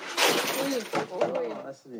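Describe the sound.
A jar of change gets knocked over as a bed's mattress and a wooden plank underneath are lifted, in a bathroom where the bed sits over the bathtub: a sharp clattering crash followed by a few scattered metallic clinks, with voices talking over the noise.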